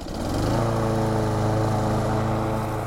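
A small petrol engine like a lawnmower's drones steadily, a loud, even buzzing hum with no one speaking.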